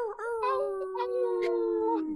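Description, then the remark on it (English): A sustained howl by people imitating a wolf over their microphones, a steady harmonic tone gliding slightly downward for about two seconds, with a few breathy bursts layered in. “Go ahead, wolf howl or whatever.”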